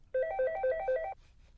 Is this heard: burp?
no